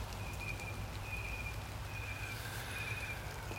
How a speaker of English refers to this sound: A little bit of rain on the roof.